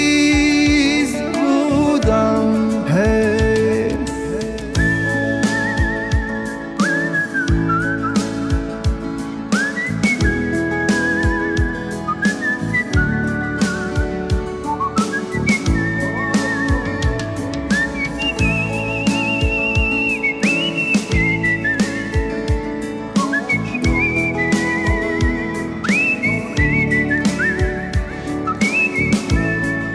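A song plays continuously, with a bright whistled melody gliding over full instrumental backing and a steady rhythmic beat, loud throughout.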